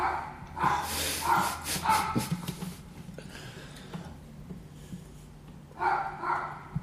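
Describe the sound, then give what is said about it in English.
A dog barks in a quick run of several sharp woofs, falls quiet for a few seconds, then lets out another short burst. Fairly loud, with a low hum underneath. “I don't give a shit about the dog. I apologise if it's annoying you.”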